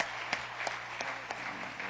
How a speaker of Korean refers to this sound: 우리 어, 참 여기 나와서 이렇게 같이 뭐 나누는 것이 쉽지 않은데 우리 한번 큰 박수로 격려하겠습니다.